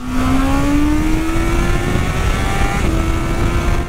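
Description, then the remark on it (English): A Honda motorcycle engine, updated to meet Euro 5 regulations, revs hard at high rpm, its strained whine climbing slightly and then holding steady, loud for the whole stretch with no voices. “the engine will also be updated to meet Euro 5 regulations, which has been achieved without losing any of that screaming top-end performance.”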